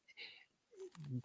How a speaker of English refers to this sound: that's a cat.